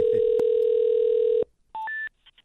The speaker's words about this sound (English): called the number on my text to prank him.